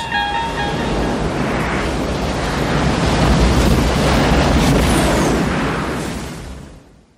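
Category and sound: nature, ocean waves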